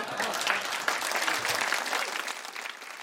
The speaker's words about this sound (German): Auf der Bühne in Bad Bemsen bietet Dichtertagung wär bannig wat los und dafür auch. Das Publikum het fix applaudiert und johlt wie der ein oder andere Geschichte von einem NDR Poetry Slam ob platt.